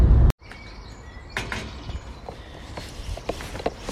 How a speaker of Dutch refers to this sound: Wat een rust, ruimte. Vogeltjes zingen. Eigenlijk zit je midden in Utrecht, maar toch weer heel erg vrij, midden in de natuur.